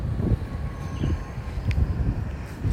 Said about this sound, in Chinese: 我猜现在风声会超大